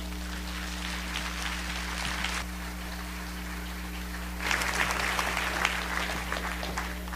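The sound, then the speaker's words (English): A church audience claps steadily to welcome their pastor, the applause easing briefly in the middle before swelling louder again, all over a constant low electrical hum. “So give my pastor a wonderful welcome.”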